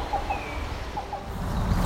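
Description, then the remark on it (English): A black-billed cuckoo gives soft, hollow low notes in short pairs, faint against a steady outdoor background hiss, on a midsummer morning at the Fletcher Creek Ecological Preserve on the northern border of Hamilton, in the headwaters of the Spencer Creek watershed. “We're going to find this black-billed cuckoo, some gray catbirds, and many other species on this midsummer morning.”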